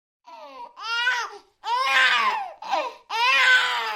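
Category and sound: human body sound, baby crying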